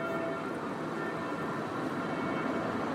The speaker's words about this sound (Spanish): Así debieron ser seguramente las sirenas antiaéreas que sonaban en todas